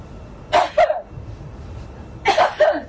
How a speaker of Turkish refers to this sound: yani kolumuzun içine, dirseğimizin içine öksürelim.